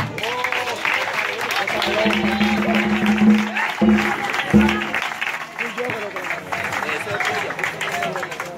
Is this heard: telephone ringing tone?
no